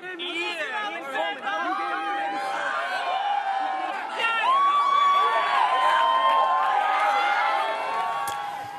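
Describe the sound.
A young concert crowd cheers and screams, a dense wash of high excited voices with shrill whoops and squeals rising over continuous loud chatter, swelling louder midway and staying intense throughout.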